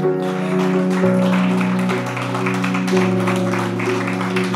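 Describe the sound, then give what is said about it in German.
A standing church audience in Bergisch Gladbach gives God a mighty applause in a steady, dense wash of clapping that continues throughout, layered over loud sustained keyboard chords that shift pitch a couple of times. “Wollen wir ganz kurz gemeinsam aufstehen und lasst uns mal Gott einen mächtigen Applaus geben, weil die Bibel sagt.”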